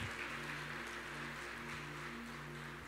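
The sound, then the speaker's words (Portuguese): An audience claps for Jesus in a dense, continuous wash of applause that holds for the whole stretch, with a low sustained hum underneath and no one speaking. “Será que você pode dar uma forte salva de palmas a Jesus?”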